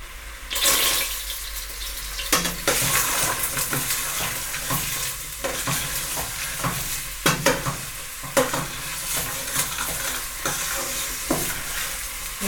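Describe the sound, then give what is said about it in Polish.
Onion sizzles steadily in a hot pan as frying begins, a constant bright crackling hiss, while a utensil stirs and scrapes through it in irregular knocks and swishes, with no talking. “No to zaczynam smażyć.”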